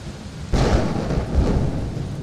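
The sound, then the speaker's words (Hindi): A sudden surge of heavy, roaring torrential rain bursts in after a quieter opening, brought on when Arjuna shoots an arrow into the sky, with deep thunder rumbling underneath and swelling again midway, loud throughout. “कुछ ऐसा ही एक दिन आचार्य द्रोण ने अर्जुन का एक चमत्कार देखा उसने आकाश की तरफ बाण छोड़ा और देखते ही देखते मूसलाधार बारिश होने लगी”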